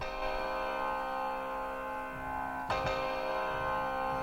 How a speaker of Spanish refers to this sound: El acorde menor, ¿cómo suena? El acorde menor suena.